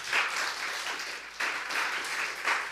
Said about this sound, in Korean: 우리 하나님께 영광의 박수 하시겠습니다.